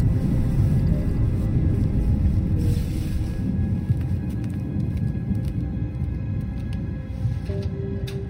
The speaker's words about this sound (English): I woke up to the building shaking from the thunder outside and felt my bladder begging for relief.